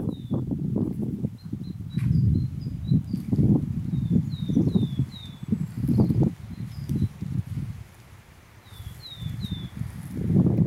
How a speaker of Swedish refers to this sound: Det är en talltita, en av våra mesarter som eh, är typisk för barrskogen.